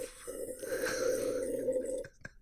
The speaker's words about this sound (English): Did you pick up my sarcastic wine slurping on Mike?